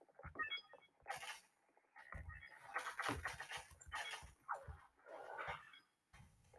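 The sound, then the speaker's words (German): A video-game dog attacks and catches the player, loud harsh barks and snarls coming in rapid irregular bursts mixed with ragged panting and scrabbling noises, with no one talking. “Oh shit, der Hund hat mich erwischt.”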